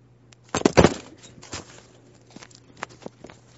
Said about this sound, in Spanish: Wow, esa fue la acción de un perrito, perdónenme.